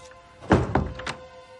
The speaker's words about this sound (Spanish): En el piso de arriba la criada abre una puerta.